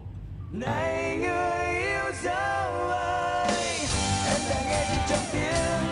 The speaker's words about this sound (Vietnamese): mình sẽ cho bạn nghe thử cái đoạn này nha mình không có TVC đâu nhưng mà bạn nghe là bạn sẽ biết đây cũng là một bài nhạc quảng cáo và quảng cáo chiếc Mitsubishi Pajero.